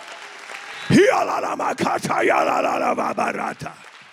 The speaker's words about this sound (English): Would you clap? Would you stand to your feet and clap your hand and lift your voice?